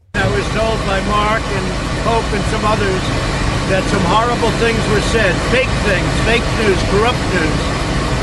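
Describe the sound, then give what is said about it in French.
A loud, steady aircraft engine roar, from Marine One or Air Force One, runs the whole way through, constant, with Donald Trump talking over it and the noise nearly drowning his voice. “On entend beaucoup, le, c'est un appareil, je sais pas si c'est Marine One ou Air Force One derrière, alors excusez-moi pour le bruit, mais voici sa réponse”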